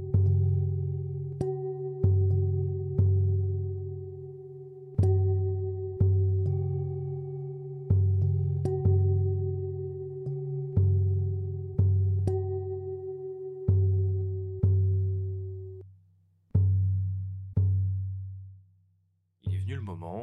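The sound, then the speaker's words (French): Looping recordings of Tibetan singing bowls hum in steady, sustained tones while a drum strikes in a regular, repeating rhythm, loud. A sweeping, warbling tone rises at the very end, with no talking. “je vous propose des boucles sonores que j'ai réalisées là ces derniers jours avec euh, mes bols tibétains et mon tambour”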